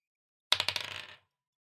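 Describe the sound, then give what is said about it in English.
Dice clatter across a hard tabletop in a quick burst of bouncing clicks that speed up and settle within under a second, fairly crisp, with no voices. The dice are rolled for a perception check in a tabletop role-playing game and land on 13. “I got a 13 on the dice.”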